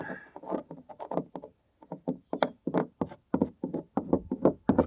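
A plastic boat is shifted into water, making a string of hollow knocks and bumps at an uneven, fairly quick rhythm, moderately loud, with no talking.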